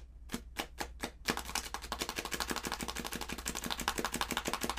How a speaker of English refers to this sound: so you'd put a playing card in it, and you'd like clothespin it to like a, a, a solid piece of metal that doesn't move, and as your bike rotated, the card would like uh bend a little bit from the wheel turning, and then the pressure would let it go.